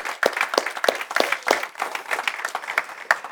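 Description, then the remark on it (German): A church audience applauds together for the people who watch the service online each week, a dense wash of many hands clapping with a few sharp claps standing out, sustained and steady throughout with no talking. “Und wir wollen denen jetzt gemeinsam kraftvoll unseren besten Applaus, unsere besten Grüße schicken.”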